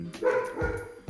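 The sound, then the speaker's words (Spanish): A dog barks a few times in quick succession, moderately loud, because someone has arrived, with no one speaking over it. “Ese es mi perro ladrando, porque hay alguien que vino.”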